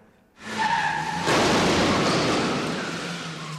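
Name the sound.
car skidding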